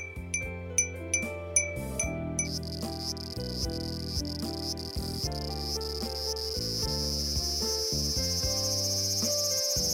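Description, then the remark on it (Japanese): Cicadas drone in a steady, shrill buzz that swells in after a few seconds of light tinkling chimes and keeps going to the end, with no voices. “セミの鳴き声です。”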